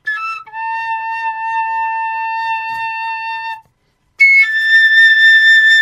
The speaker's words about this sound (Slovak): Z, Žiarislav teraz zobral do ruky asi o polovicu menšiu píšťalku, ako mal tú, čo do nej fúkal teraz.